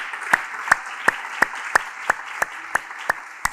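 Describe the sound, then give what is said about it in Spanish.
Audience applause with sharp claps landing together in a steady, quick beat over a continuous wash of scattered clapping, at the close of a church service in Ciudad Miguel Alemán, Tamaulipas. It sounds fairly loud throughout. “Más fuerte ese aplauso.”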